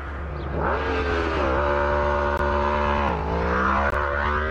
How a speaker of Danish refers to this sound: Tanken afbrydes af et motorkøretøj, som forlader stedet i fuld fart.